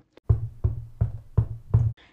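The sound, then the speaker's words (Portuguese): A boy knocks five firm times on a wooden door in an even, steady rhythm, each knock a dull, resonant thud. Fairly loud, with no voices. “O menino bateu a porta.”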